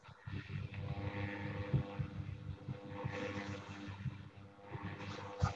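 A steady, rough mechanical buzz runs continuously with a grinding, whirring texture, fairly loud, like paper shredding in the background of a participant's unmuted microphone on an online call. No one speaks over it.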